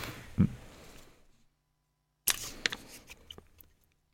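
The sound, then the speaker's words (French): Dry paper rustling and crinkling as a small slip of paper is drawn, a soft shuffle that fades into a brief pause, then a sharper burst of crisp handling noises with a few quick clicks and snaps. “Je tire un petit papier ouais.”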